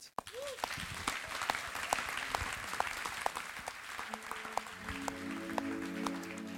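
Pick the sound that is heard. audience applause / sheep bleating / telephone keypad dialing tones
audience applause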